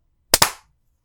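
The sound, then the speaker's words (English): Two quick, gentle hand claps close together, made to sync the audio of a recording, sharp and fairly soft, each with a short fading ring, and no voices around them. “Little gentle claps for you today.”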